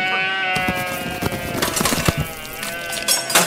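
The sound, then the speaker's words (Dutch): Sheep bleat loudly as a sheep's throat is cut as a sacrifice for a wedding, a sustained, wavering cry lasting several seconds, with scuffling and rustling noises mixed in and no one speaking. “nou snij ze zo dat schaap eh, de keel In ons cultuur is heel normaal gebeurd.”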